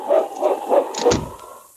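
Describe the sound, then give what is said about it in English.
A dog barks about four times in quick, steady succession, loud, with a slightly hollow, echoing quality and no voices, as it is sent off to bring back a sled dog team. “Get the dogs, boy. Bring them back to me. After them, boy. Get the team. On, King!”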